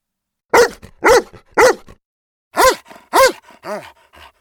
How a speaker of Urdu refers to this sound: پر کتے کو کچھ سمجھ نہیں آئی اور وہ غراتا اور بھونکتا رہا